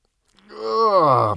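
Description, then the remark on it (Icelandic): A single drawn-out, low groaning voice that swells and bends downward over about a second, fairly loud, like someone stretching; it sounds like a person imitating the groan. “geispa tegja úr sér”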